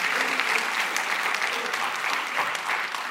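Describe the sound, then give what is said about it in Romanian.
An audience applauds steadily, a dense patter of many hands clapping at an even loudness for a few seconds without pause. “Haideți să-i aplaudăm.”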